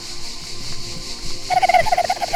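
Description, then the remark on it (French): A person imitates a dolphin's call with a quick, high-pitched, warbling chatter of rapid pulses. It starts partway through and runs fairly loud to the end. “Quel bruit euh, font-ils le bruit un dauphin.”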